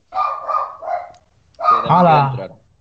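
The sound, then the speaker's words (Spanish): A dog barks: three quick barks in a row, a brief pause, then one longer, wavering bark that trails off. “Y ahora Pancho se apunta, ya tenemos perro.”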